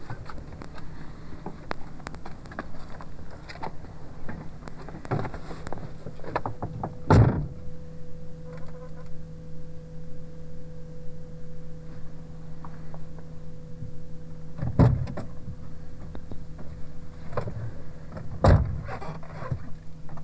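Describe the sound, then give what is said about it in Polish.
Someone gets into a car: a few solid thumps of the car door closing, spaced several seconds apart, over a steady low hum inside the vehicle; no one speaks. “A teraz wsiądę do samochodu i zobaczymy jak będzie w środku.”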